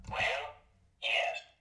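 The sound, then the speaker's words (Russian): A green game button on a table, used to confirm, sounds: two short, bright bursts, the first fading out over about half a second, then a brief gap before a second, similar burst. Clear, no talking. “Значит, смотри, одна из них зеленая звучит вот так.”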